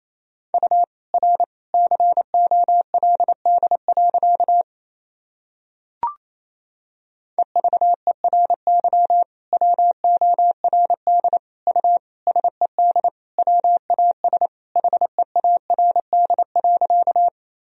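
Fast Morse code sent at 28 words per minute in a single steady beeping tone, a sentence of dots and dashes keyed rapidly in two long runs separated by a short pause with a faint click, clear with no voices.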